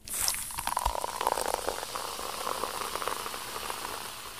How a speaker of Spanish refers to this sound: O el simple momento de abrir una Coca-Cola y escuchar el sonido del gas.